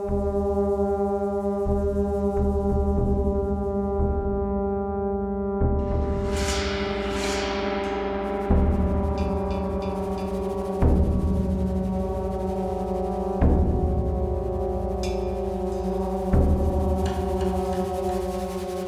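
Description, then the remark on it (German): Brass chamber music from Thorvalds Dottier's chamber work Into Second Self holds long, layered chords whose tone colour gradually shifts, with low sustained notes and fresh swells entering every few seconds and a brighter, airy flare partway through. “Die subtilen Farbwechsel der Blechbläserklänge in Thorvalds Dottiers Kammermusikwerk Into Second Self erinnern ein wenig an die auratischen Klangwelten George Ligetis, dessen Musik Thorvalds Dottier über die Maßen bewundert.”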